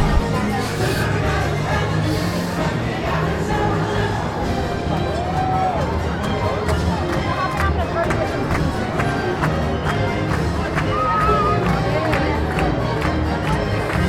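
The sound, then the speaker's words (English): A steady, dense crowd din of many people running and chattering at once as a parade in a park ends, with scattered sharp clicks and footfalls and a few brief whistle-like tones rising above the constant hubbub. “I really don't recommend you leaving the park until after the parade because I'm hitting the end right now and I'm about to get a whole bunch of people to run towards me.”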